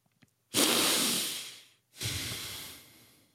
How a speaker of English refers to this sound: The fact that I didn't have a coughing fit on that deep breath means that mofo inhaler might actually be working.